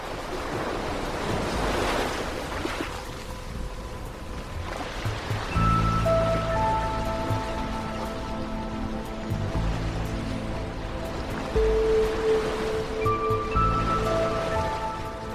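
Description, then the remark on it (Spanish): Steady Mediterranean Sea waves wash and roll in at the island of Mallorca, Spain, with a breezy, windy rush of sea breeze, continuous and fairly loud, while soft tonal music drifts in underneath after the first few seconds. “emitimos desde la isla de Mallorca en España, rodeados del mar Mediterráneo azul y su brisa marina.”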